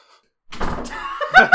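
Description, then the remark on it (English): A man closes a door, which swings shut with a muffled thud and a brief scrape, followed by a couple of quick rattling knocks as it settles. “He's closing the door.”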